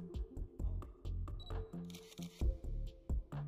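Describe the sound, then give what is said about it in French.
A photographer's camera shutter fires a series of sharp clicks in an irregular rhythm, each with a brief mechanical snap, while photographing a couple on a bed under coloured lights, over a low background hum and faint rustling; no one speaks. “L'appareil photo vient ponctuer de clics la scène qui nous est offerte.”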